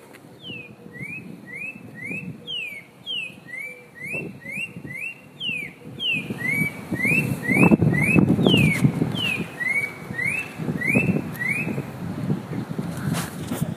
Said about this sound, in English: And w- w- what are we listening to right now? We're listening to is Spot Breasted oriole.